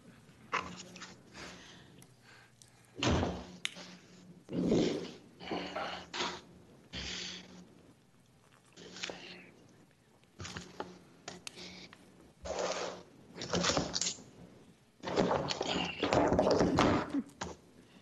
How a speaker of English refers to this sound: Oh, I'm fine. Okay, we thought you fell out of your chair.